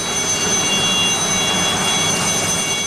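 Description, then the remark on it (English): A loud, steady helicopter engine roar with a high turbine whine as its blades whir and it takes off, continuous throughout with no voices. “And I watched as the blades began to whir and the wind blew up and they blew the tears off my face as the helicopter set off to the place I wanted to go.”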